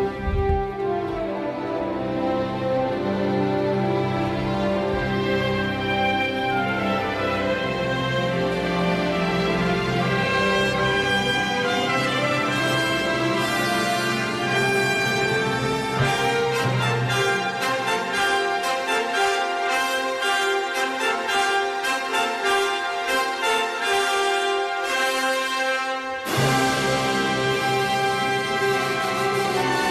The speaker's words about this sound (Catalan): I no sé si recordeu com és el final de la música d'ET, que sona així.